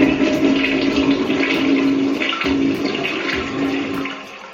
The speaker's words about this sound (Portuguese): Aí de manhã cedo, a gente é, é, ouviu lá do quarto barulho de descarga.